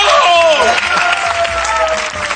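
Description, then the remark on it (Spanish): A TV show audience breaks into loud, steady applause for Ricardo Castella, the show's judge, a dense wash of clapping that holds throughout, with a few cheering voices rising over it. “Bueno, un aplauso para Ricardo Castella, que ha sido un juez maravilloso.”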